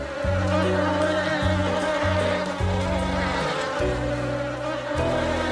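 A dense swarm of approximately 160,000 bees in an attic buzzing loudly and continuously, many overlapping drones wavering in pitch, with no voices.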